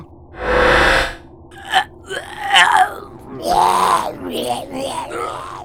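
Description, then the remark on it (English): Guttural, retching, vomit-like vocal noises from strange creatures: a harsh, breathy gagging burst followed by a string of gurgling, croaking groans and belch-like utterances, fairly loud and irregular. “Is that them thinking or talking? Sounds like vomiting to me.”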